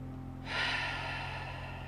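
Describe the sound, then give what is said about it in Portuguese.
A deep, slow breath drawn in and out during a relaxation breathing exercise, a soft airy rush that swells and then holds steadily for over a second. No one speaks. “Enquanto trabalhamos a respiração, mais uma vez,”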